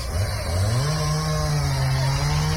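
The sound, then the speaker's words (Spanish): A chainsaw roars steadily as it cuts trees during renovation work at the Parque de los Sardines in Santiago, its engine pitch rising and then holding a high whine as it bites into wood, loud throughout with no voices. “eso son, esa es una motosierra cortando algunos árboles.”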